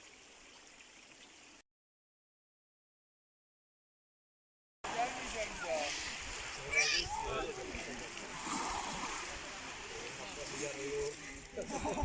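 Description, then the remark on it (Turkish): Water splashes and sloshes in a continuous, uneven wash as someone swims to cool off at a beach that was once the harbour of an ancient city, beside a cold-flowing stream. A short stretch of silence comes before the splashing starts. “Soğuk akan derenin kenarından antik kentin limanı şimdinin plajına inip yüzüp serinledim.”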